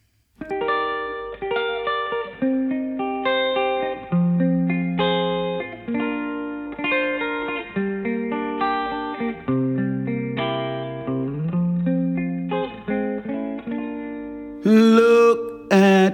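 An instrumental jazz recording plays: smooth sustained melodic notes over held chords at a steady moderate volume, with no voices, ending in a brief brighter, buzzier swell.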